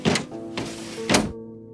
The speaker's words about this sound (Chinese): 他们家家户户打开门窗，